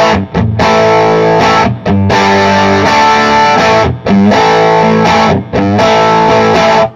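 A loud, cranked electric guitar on the bridge pickup, with gritty distortion, plays bright, chunky chords in short bursts, each ringing out before brief gaps; no one talks over it.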